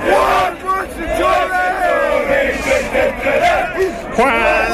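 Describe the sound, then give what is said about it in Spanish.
A crowd of Sunderland football fans chants and cheers loudly and steadily, many voices singing together in a rough, rising and falling melody with a dense roar underneath. “Y mire cómo fue recibida la noticia por parte de los fanáticos del Sunderland.”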